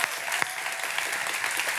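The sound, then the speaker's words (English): An audience claps steadily, a dense wash of many overlapping hand claps at an even loudness throughout, with no voices standing out. “Well, if you're going to clap, go ahead and clap your hands and come on.”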